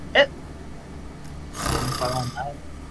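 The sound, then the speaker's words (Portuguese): A voice imitates a loud, rasping snore, one long drawn-out rumble lasting over a second, preceded by a brief sharp click. “Você escuta um roncozão? Muito bem forte.”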